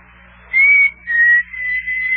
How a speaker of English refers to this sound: Hey, what was that? What was what? Did, did, did you hear a whistle? Sound like a signal. Oh, that was Rabbit Ears whistling. I know good old Rabbit Ears whistle anywhere.